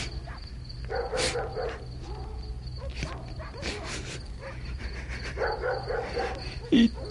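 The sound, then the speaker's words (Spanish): Dogs bark in scattered bursts from several directions, some yipping and whining, over a steady low hum. No one speaks. “al quedar libre, oyó como por todas partes ladraban los perros.”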